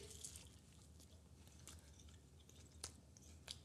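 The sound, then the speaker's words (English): Soft, wet chewing with squishy mouth sounds and a few sharper clicks as a gooey marshmallow peep is eaten, no talking. “I'll try a peep.”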